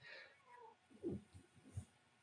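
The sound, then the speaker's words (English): A cat named Tazzy meows several times in quick succession, the calls loud, rising and falling with a slightly strained, drawn-out tone and no one speaking over them. “She has the loudest meow”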